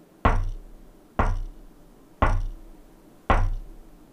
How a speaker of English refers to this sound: four distinct knocks in return.